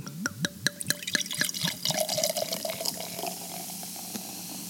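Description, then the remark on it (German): Beer glugs from a bottle into a glass in quick, rising-pitched pulses, then settles into a steady fizzing, crackling hiss of foam. Fairly loud, with no voices. “So, so hört sich Bier an.”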